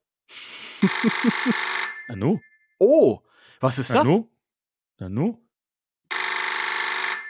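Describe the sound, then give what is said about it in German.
An old-style telephone bell rings loudly in two long, rattling bursts, one at the start and one at the end, with a puzzled voice speaking in the pause between. “Geh mal ans Telefon.”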